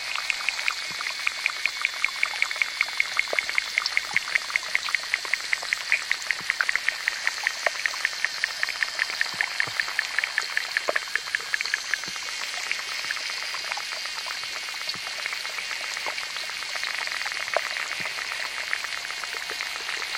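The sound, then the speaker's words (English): Underwater sounds of small ponds, one in Africa and one in New Mexico, captured by hydrophones and combined by engineer David Dunn: a steady, hissing wash of high fizzing texture threaded with rapid regular clicks and ticks, continuous throughout with no voices. “Engineer David Dunn dropped some hydrophones into a pond in Africa and another in New Mexico and put the sounds together.”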